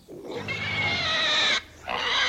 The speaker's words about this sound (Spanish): Por el camino encontré a doña Chana, la saligana, con una puerca recién parida con varios puerquitos.